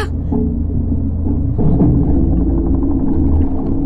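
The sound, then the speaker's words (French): A fishing boat engine drones overhead, heard muffled from underwater as a loud, steady low rumble with a humming tone. It swells slightly partway through and continues without pause, with no voices. “un bruit de moteur au-dessus de nous. Pétard Des pêcheurs Manquait plus que ça”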